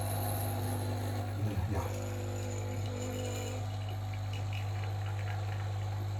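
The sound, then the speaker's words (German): A coffee machine runs steadily, its pump droning with a low hum while liquid trickles and gurgles into a cup, with a brief bubbling sputter early on and no voices. “Maschine läuft.”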